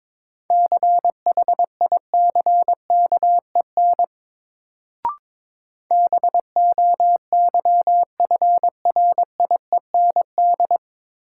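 Morse code sent at 22 words per minute as a single steady mid-pitched beep, keyed in rapid dots and dashes, with a short pause and a faint click midway before the sending resumes.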